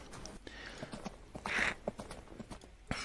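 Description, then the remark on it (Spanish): Horse hooves clip-clop in a steady, moderately paced rhythm as horses, given a light tap, pull a luxurious carriage away, with a brief brighter rattle midway through; no voices are heard. “Y se despide en su, en su lujosa carreta. Le pegan un, un golpecito a los caballos y salen.”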